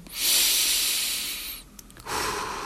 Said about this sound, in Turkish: derin bir nefes alın. Endişe, panik, korku, heyecan anlarında 4 saniye nefes alın, 8 saniye nefes verin.